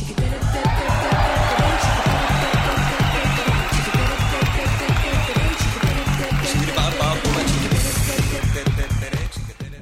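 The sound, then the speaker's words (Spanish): A crowd claps in a steady, rapid rhythm with cheering mixed in, loud and sustained for the whole stretch before easing slightly at the end, applauding for someone whose birthday is tomorrow. “Fuerte el aplauso, público conocedor,”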